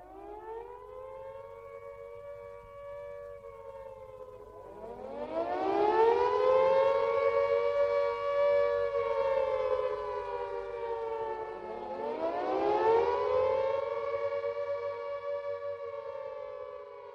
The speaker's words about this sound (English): Can you tell me a bit about sirens? Were there sirens all over the cities in the Soviet Union to obviously alert you to a to a nuclear attack? And do they still exist? For example, in Riga. Yeah, yeah, they do, and we still have like tests of them,